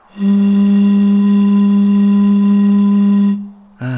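A single low, steady hooting tone from blowing across an empty soda bottle, held for about three seconds with a breathy hiss, then cut off and followed by a brief wavering sound.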